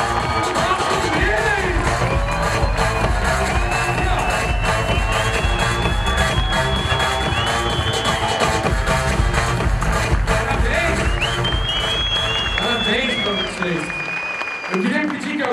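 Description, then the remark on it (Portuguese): A large audience, on its feet, applauds loudly and steadily for about fifteen seconds, a dense wash of clapping with scattered cheers and whistles rising over it before it begins to fade. “Então, de verdade, fica de pé e vamos dar uma forte salva de palmas”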